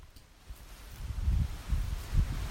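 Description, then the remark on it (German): A processed recording with a soft, rain-like rustling hiss over low, rumbling swells that rise and fall unevenly, fairly quiet and steady throughout, with no one talking. “Könnt ihr das hören? Das klingt wie Regen.”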